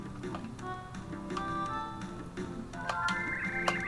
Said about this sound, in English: Going into a different room is an empty bed. Ominous. Grandfather clock.